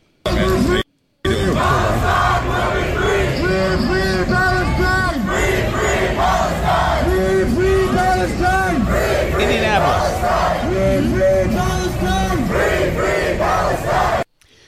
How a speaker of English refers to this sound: this place has thousands of people. Oh, they're thrilled, having a good old time.